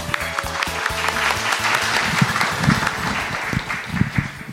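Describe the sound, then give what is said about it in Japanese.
A crowd at an IR seminar in Nagoya on July 29 applauds steadily to welcome the president of the company ATLED, dense overlapping clapping filling the whole stretch at a fairly loud level, with a low thumping beat underneath near the start. “大きな拍手お願いいたします”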